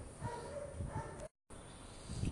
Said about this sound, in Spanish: pues uno de ellos son los perros, güey, que tenemos aquí. Nunca fallan, esos cabrones están más presentes que los que nos escuchan. Pero pues ni modo, los vamos a dejar de fondo